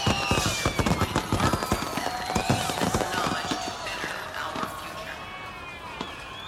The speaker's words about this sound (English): Too many fireworks, too fast. Maybe the Night is behind schedule? Most people are not even looking at the show. Why come out at night if you ignore the fireworks?